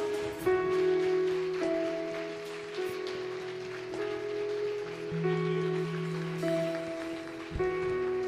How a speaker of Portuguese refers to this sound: Mas se você recebe essa abundante graça, essa escandalosa graça da parte do Senhor, aplauda Ele mais uma vez, bem forte, em nome de Jesus.